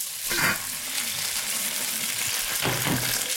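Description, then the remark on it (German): Steady, dense sizzling of potatoes frying in a pan, a continuous hiss with brief louder crackling bursts near the start and end, likely from stirring; no voices. “Siehst du, es zischt auch. Man auch da hört man auch schon. So, brate das an.”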